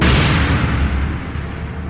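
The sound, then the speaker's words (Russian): Loud gunshots, fired during a brawl between guards at a concert event involving a singer, blur into a continuous booming roar, with a few sharper cracks poking through as it eases slightly toward the end. No voices are heard. “Внезапно раздались выстрелы.”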